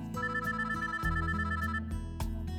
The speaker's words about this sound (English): Ruth's phone rang, cutting Chloe off.